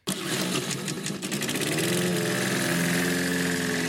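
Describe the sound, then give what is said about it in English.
A lawn mower engine kicks in abruptly and keeps running at a loud, steady drone, its buzzing pitch settling slightly as it idles on, with no voices. “Mowers, start your engines.”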